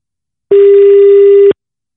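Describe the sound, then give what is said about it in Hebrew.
A single loud telephone ringback tone on an outgoing call: one steady, mid-pitched electronic beep lasting about a second, with silence before and after. No one speaks. “לפני סיום, אנחנו חייבים לעשות ככה איזה שיחה בהפתעה, לחזור למקורות,”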